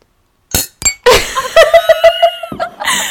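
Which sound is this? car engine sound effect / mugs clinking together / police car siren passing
mugs clinking together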